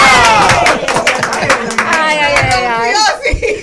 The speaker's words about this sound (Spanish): Un aplauso a la doctora.